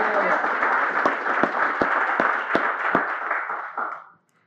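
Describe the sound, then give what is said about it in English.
A show's audience applauds a guest's outfit in a dense, steady wash of clapping, with sharper individual claps popping out every few tenths of a second, before the applause fades out after about four seconds. “Hey, can we give a round of applause for this outfit?”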